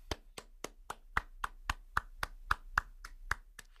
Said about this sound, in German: Gebt euch mal selber einen Applaus.